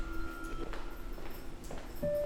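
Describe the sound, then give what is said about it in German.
A man's footsteps clack at an unhurried pace across the hard floor of a long, dark corridor in the Reich Aviation Ministry, each step a sharp knock, with a steady low hum and a faint tone lingering in the background. “Ob seine Schritte weniger selbstbewusst klangen als normalerweise?”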